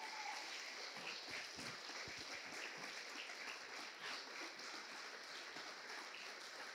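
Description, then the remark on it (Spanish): An audience gives applause to God, clapping steadily, a dense wash of many hands clapping at once that holds an even, loud level throughout without any speech. “si le va a dar el aplauso a Dios, déselo fuerte, fuerte.”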